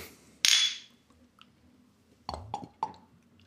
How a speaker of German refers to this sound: So, kommen wir stoßen mal an.